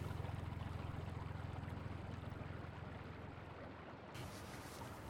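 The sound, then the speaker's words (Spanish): A small motorboat's engine drones steadily, its low hum riding over the constant rush and splash of water against the hull, with the wash brightening briefly near the end; a small launch ferrying people across the river to Isla Paulino, Buenos Aires province, Argentina. “Lola se sube a una lancha y visita la quinta de Andrea”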